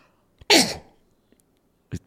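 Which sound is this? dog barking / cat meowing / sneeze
sneeze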